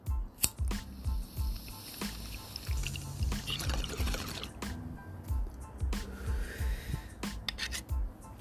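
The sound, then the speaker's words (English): A bong hit with water bubbling and gurgling in rapid, steady low pulses for several seconds, with occasional sharp clicks and a rising hiss partway through. “so let's take this bong hit and then spin the wheel again.”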